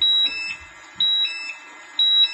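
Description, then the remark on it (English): A gas detector alarm beeps in a steady, repeating pattern of loud, high-pitched electronic tones, about one per second, with no talking over it, signalling a hazardous atmosphere during an oxygen level test with a test hose. “alarm going off. That means that there is a hazardous atmosphere.”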